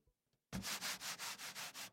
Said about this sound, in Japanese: この和紙のような音わかりますかこれは芭蕉紙という紙で琉球に伝わる伝統的な紙らしいんですけれども